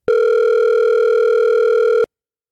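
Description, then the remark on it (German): A single steady telephone ringing tone, a loud, clear electronic beep held for about two seconds before cutting off into silence, with no voices, as a phone number printed on a business card is called. “Da steht ja eine Telefonnummer drauf. Mhm. Ich finde, wir rufen da jetzt mal an.”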